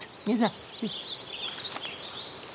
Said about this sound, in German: Vom Sturm ist nichts mehr zu spüren. Ah. Vögelchen flattern.